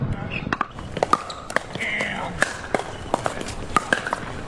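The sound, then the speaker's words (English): Sharp, hollow pops of pickleball paddles striking plastic balls ring out in an irregular staccato from several full pickleball courts at once, some crisp, others fainter, over a low murmur of voices. “Now, it is a more distinct and staccato noise than what tennis balls and rackets makes.”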